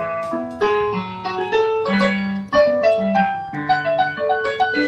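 A piano track plays at the original speed and pitch at which it was played on the piano: a moderately loud melody of bright, ringing notes over sustained lower chords, phrases shifting every second or so, with no voices.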